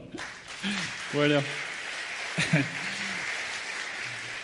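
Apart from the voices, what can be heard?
audience applause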